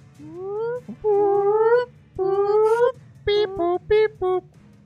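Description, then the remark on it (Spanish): A spaceship alarm on the USS Montero blares from a distance: three loud rising whoop sweeps, each climbing in pitch, followed by four short, evenly spaced beeping tones, with no talking. “La alarma suena”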